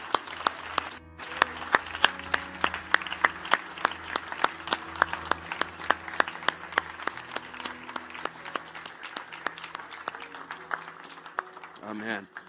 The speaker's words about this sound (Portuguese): Obrigado, Senhor. No nome de Jesus. Amém! Vamos aplaudir a Ele no nome de Jesus.